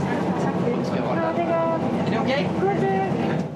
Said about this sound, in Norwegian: Her går passasjerer om bord i en SAS-flight på vei fra Gardermoen til København.